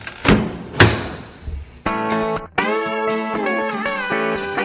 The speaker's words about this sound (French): Et juste après ce petit bruit, vous entendez la même porte par laquelle vous êtes arrivé se reclaquer.